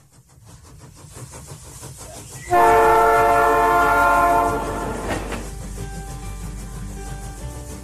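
A train rumbles steadily along the rails, and a loud, sustained horn blast sounds for a few seconds midway before the rolling clatter continues on its own.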